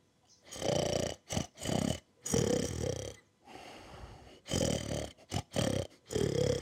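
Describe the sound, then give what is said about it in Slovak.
A dog snores loudly in a run of rough, rattling breaths with short gaps between them, each snort heavy and buzzing. “nechráp. Tíško, papuľa, to chrápe tichú noc.”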